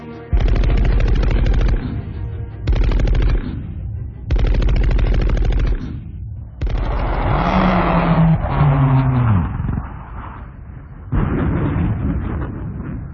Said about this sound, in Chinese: 雷斯特曼还没有来得及掉头进入迎战状态，就被对方密集射击的子弹击中，飞机尖叫着一头栽进大海。